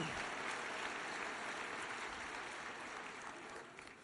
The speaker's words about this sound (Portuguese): Vamos aplaudir bem forte a Jesus.